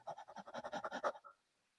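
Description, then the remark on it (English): A person imitates quick, shallow panting from the chest, the way some kids breathe: about ten short breaths in a fast, even rhythm lasting just over a second, fairly loud, then silence. “But if you you expand your chest, for example, there are kids that breathe here like a panting.”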